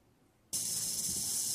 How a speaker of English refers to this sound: Um, we have a video. I want you to listen. This is a bad snake if you hear this.